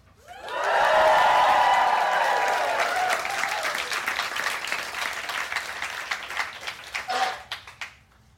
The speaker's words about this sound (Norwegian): Denne gangen live fra Blå i Oslo. Her er det veldig mye folk. Eh, jeg tror bare for at vi kan bevise at det er veldig mye folk, så må dere lage litt lyd nå, sånn at de som hører på podkasten, hører dere.